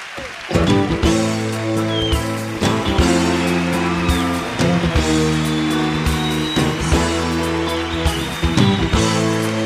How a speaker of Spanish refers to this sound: Lo seguimos escuchando en este caso con un clásico que cada vez que hay un mundial se escucha por todas partes que es cuando juega Uruguay.